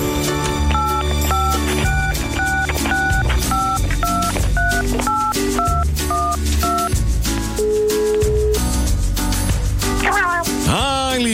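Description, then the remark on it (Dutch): A phone number is dialed with a quick series of about a dozen touch-tone beeps in a steady rhythm, played over busy background music, followed by a brief rising and falling squeal. “Wacht. Even bellen.”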